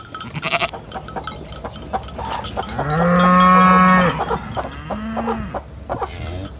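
A cow gives a long, loud moo, followed by a shorter, softer moo, with other farm sounds and faint clanking in the background.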